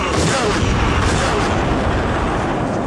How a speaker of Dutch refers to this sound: Wat is het moment dat een veldslag gewonnen wordt? Het is een bende. Het is onoverzichtelijk. Het is luidruchtig. Het is omvangrijk. En toch, ook in Waterloo is er een moment dat het laatste schot gelost wordt.